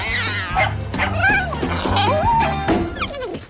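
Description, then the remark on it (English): A cat meows repeatedly in rising and falling cries, mixed with a small dog's sharp yips, all fairly loud over steady background music, in a scene from the film Meet the Fockers. “They have a cat.”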